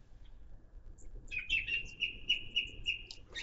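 Birds chirp outdoors in a quick, repeated series of bright tweets, starting after a moment of quiet and continuing steadily over a low rumble of background noise.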